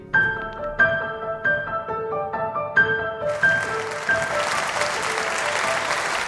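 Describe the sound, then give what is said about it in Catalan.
A short melodic musical phrase of stepped notes gives way, about halfway through, to loud sustained applause from a crowd receiving the 1 October independence leaders at the Palau de la Generalitat and the Parliament, a dense steady clatter of many hands that continues to the end. “Entre aplaudiments i abraçades, els líders independentistes de l'1 d'octubre han estat rebuts aquesta setmana al Palau de la Generalitat i al Parlament.”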